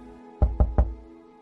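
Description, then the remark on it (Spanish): Three firm knocks on a door, evenly spaced, each a solid low thud, with no talking around them. “Van a tocar tu puerta.”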